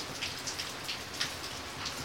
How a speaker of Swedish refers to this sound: innan jag gick och la mig fortsatte det hårdare och jag tittade ut genom fönstret och såg att det regnade. Trots att jag försökte ignorera det så var det något märkligt med det här regnet. Det verkade skumt och ur fokus, nästan som, som ett spöke.